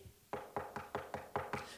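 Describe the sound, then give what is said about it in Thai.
A hungry child knocks on the mother's bedroom door around midnight, seven quick, evenly spaced raps in a steady rhythm, fairly loud, with no voices. “ปรากฏแม่ก็ไม่ลุกอีก แม่หลับสนิทเลยเหนื่อยมาก ทำงานมาทั้งวันเหนื่อยมาก คุณพ่อก็หลับสนิท เคาะประตูก็ไม่ได้ยิน”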